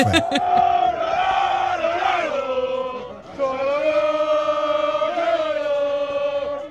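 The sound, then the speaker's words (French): A group of football supporters chant loudly together on a festive coach departing from Nantes, sustained sung phrases in two swells with a brief dip in the middle, voices blending into a rowdy unison. “On, écoute justement hein, les supporters à ton micro euh, au départ dans de Nantes, hein. dans le car festif.”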